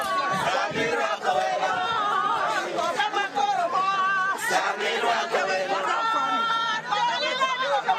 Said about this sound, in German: Sie hören es, es haben sich laute Rufe ins Protokoll gemischt.